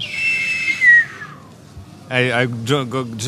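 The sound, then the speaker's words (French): The high whistle of an incoming shell falls steadily in pitch for about a second and a half and fades out. After a short pause, a person starts speaking. “Quand il a entendu le, euh, sifflement, bah, il est sorti de la voiture parce que euh, c'est le protocole de sécurité et il a raison.”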